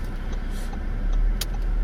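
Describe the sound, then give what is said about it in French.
A car engine rumbles low and steady as the vehicle creeps forward, with a few faint ticks from a turn signal set to indicate a right turn, and a brief louder click. No one speaks. “on refait une marche avant, je mets le clignot pour indiquer que je vais à droite.”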